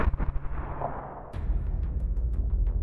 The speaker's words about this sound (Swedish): Bara minuter efter att Putin avslutat sitt tal kommer rapporter om kraftiga explosioner på flera platser i Ukraina. Bomber regnar över huvudstaden Kiev och i städerna Odessa, Charkiv och Mariupol.